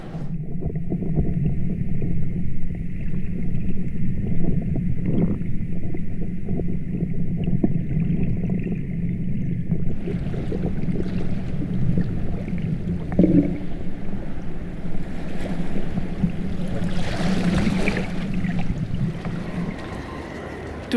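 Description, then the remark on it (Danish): Sea waves at the harbour pier in Helsingør make a steady, unbroken wash of water, with a low droning hum and a faint high whine underneath. The sound swells slightly toward the end. “Jamen, vi skal have, have noget mere hav.”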